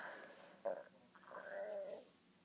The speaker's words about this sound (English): Pardon me, gosh, it was a burp. I've been drinking fizzy, sugar free fizzy.